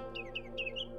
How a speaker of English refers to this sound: So we waited quietly. While we waited, I heard a bird singing.